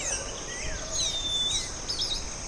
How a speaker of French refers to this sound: Il y en a un qui siffle comme on siffle les filles dans la rue.